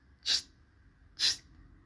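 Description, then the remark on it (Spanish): Two short, sharp "psst" hisses about a second apart, clear against a quiet background, made by an old man in a rowing boat trying to catch someone's attention. “De pronto el amor escuchó que alguien chistaba.”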